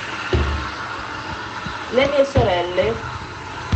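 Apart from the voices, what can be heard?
washing machine running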